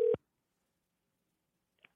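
A single short, steady mid-pitched telephone ringing tone sounds at the start as a call is placed to a listener, then the line falls silent until a faint brief click near the end.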